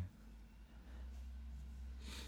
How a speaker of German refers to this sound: Also ich höre Wind ich höre und, Schnaufen. Und Schnaufen.